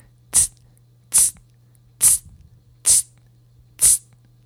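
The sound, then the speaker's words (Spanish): A voice imitates a beatbox hi-hat (charles) with five short, crisp hissing bursts, evenly spaced about a second apart, bright and sibilant like a quick "tss", much like shushing to call someone, with silence between them. “El charles es un sonido más agudito y lo vamos a hacer de esta forma.”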